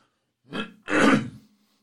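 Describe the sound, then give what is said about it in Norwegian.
Two quick throat clears, a short rasp followed by a longer, harsher one, with silence around them and no speech. “Jeg må bare kremte litt.”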